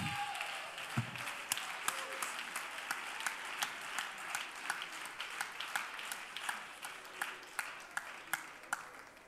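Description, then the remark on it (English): An audience claps their hands together, a dense, steady wash of applause with sharper individual claps popping out at a fairly regular beat, sustained for several seconds. “Now clap your hands one more time.”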